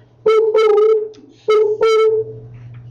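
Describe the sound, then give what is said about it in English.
A submarine glitch effect: two pairs of loud, buzzy tones that stutter on and off in a broken rhythm over a low electrical hum, with no one talking. “Sound effects, submarine glitch.”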